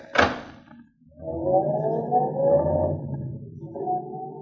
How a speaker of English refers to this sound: A tall man, dressed entirely in gray, detaches himself from the doorway of a shabby hotel where he's been loitering and approaches a taxi that has just moved up to the first place in line. He opens its door and.